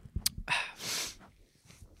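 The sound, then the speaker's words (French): A sudden sneeze: a short sharp catch of breath followed by a loud, breathy explosive burst, then quiet background noise with no talking. “Genre comme à tes souhaits. Fois deux.”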